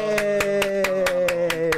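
Welcoming applause at a show for a golf company's general manager: about eight quick, evenly spaced claps in a steady rhythm, each sharp and bright, over a sustained low musical tone that hums underneath throughout, with no one speaking.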